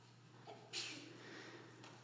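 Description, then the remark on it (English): A single quick sneeze bursts out once, fairly soft, over a low steady background hum with no talking around it. “Bless you.”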